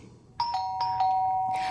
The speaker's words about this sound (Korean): 잠시 후 드디어 울리는 초인종 소리.